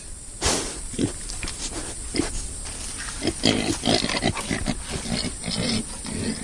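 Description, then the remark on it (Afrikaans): A pet pig named Bykin grunts and snuffles repeatedly, with short irregular bursts of noisy breathing and rustling over a steady background hiss, no one speaking. “OK, ek het nou 'n vark gehoor.”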